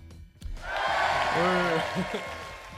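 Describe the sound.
A short burst of an applause sound effect played on the show Emprende OM swells in after a brief pause and holds steady as a dense, hissy wash of clapping, with a voice calling out briefly in the middle.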